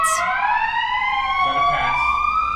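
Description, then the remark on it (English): A loud emergency vehicle siren wails steadily outside, heard through open windows, its pitch slowly rising as it passes, with no voices over it. “Hi, Siren. Does it? Does it? It's getting louder.”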